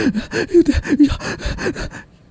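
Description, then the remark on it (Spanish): A person breathes in quick, forced, heavy gasps, about eight sharp breaths in a steady fast rhythm, fairly loud, demonstrating hyperventilation, then stops abruptly into quiet. “Pues si usted hiperventila porque usted está muy ansioso.”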